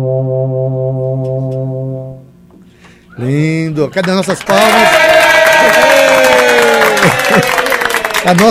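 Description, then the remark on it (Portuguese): An electronic instrument, played to demonstrate its timbre, produces a synthetic crowd applauding: after a steady held tone and some swooping voice-like glides, a loud, dense wash of clapping-like noise with tonal streaks fills the rest. “Essa multidão eletrônica da, da, está aplaudindo.”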